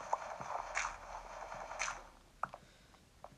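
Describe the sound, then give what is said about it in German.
Video game diamond shovel digging through dirt: a quick run of crunchy, scraping dig sounds, followed by a few sharper isolated taps near the end, with no talking. “Das mit den Fackeln geht zwar auch viel schneller, aber ich habe halt eine, eine ebene Dia ähm, Dia-Schafe gemacht und deswegen will ich sie gerade ein bisschen ausprobieren.”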